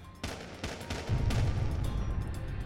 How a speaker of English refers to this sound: The moment he started racing back to the house, gunfire erupted.